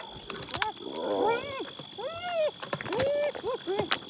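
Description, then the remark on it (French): Hyenas cry out in a noisy scramble over prey dropped to the ground, with several rising-and-falling whooping calls overlapping amid scuffling and rustling as they jostle to feed. “Et quand la hyène lâche la proie à terre, c'est la curée. Ça crie, ça se bouscule.”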